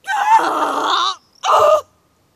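dog growling

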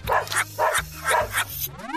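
dog barking

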